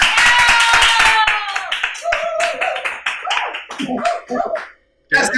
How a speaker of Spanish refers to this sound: Mexicano, aquí se escuchan los aplausos.